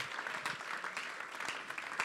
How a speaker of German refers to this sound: Lass uns Gott doch mal einen riesengroßen Applaus geben. Come on!